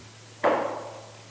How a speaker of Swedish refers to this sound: Och så dröjer det lite tag och så knackar det på dörren.